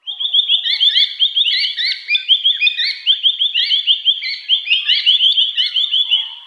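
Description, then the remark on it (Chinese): Noisy miners, birds native to Australia, chatter loudly and without pause, a dense stream of shrill, scratchy high-pitched calls that overlap and tumble over one another for several seconds, with no voices. “其实听到它的名字 noisy 嘛，noisy 就是吵吵嚷嚷的，叽叽喳喳的。”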